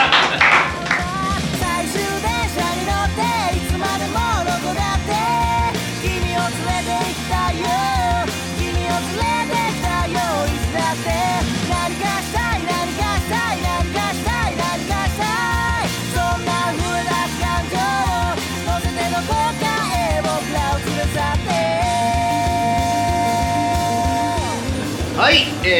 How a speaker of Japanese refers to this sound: サビの部分だけ、ね、流したいと思います